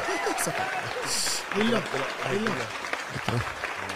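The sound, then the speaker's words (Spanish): Steady clapping fills the whole stretch, a dense patter of several hands close by, with excited voices talking and calling out over it. “¡Aplauso, carajo!”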